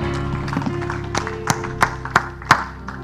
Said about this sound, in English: And if you'd give him another hand clap of praise before you're seated, thankful for the word of God today.